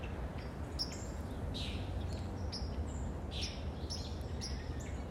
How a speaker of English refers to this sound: Just a little friendly reminder as I'm surrounded by birds they don't ask permission to sing, they don't ask permission to be present, and they don't ask permission to fly. They simply do.